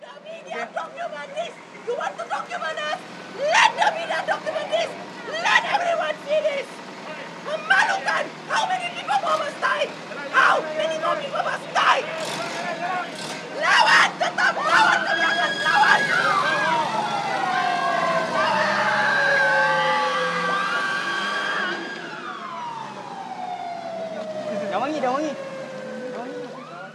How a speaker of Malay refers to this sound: Jadi sebentar tadi kita baru mendengar rakaman suasana apabila peserta dan penganjur wanita dibawa ke IPD dan wangi dalam sebuah Black Maria.